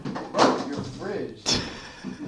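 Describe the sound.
A mini fridge door is opened, giving two short clunks about a second apart with a bright rattly edge, while voices talk over and between them.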